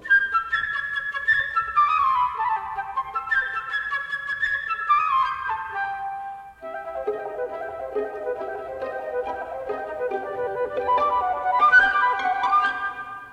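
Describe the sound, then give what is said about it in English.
A bright, high flute melody, representing the bird in an orchestral tale where each character has its own instrument, flutters and darts in quick descending runs, imitating a chirping bird, with a fuller orchestral accompaniment joining about halfway through. No one speaks. “The bird by flute.”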